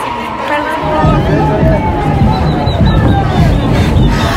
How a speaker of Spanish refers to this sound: Hay algunos cánticos, algunos gritos, algunas batucadas por aquí por allá, pero en general es una marcha silenciosa.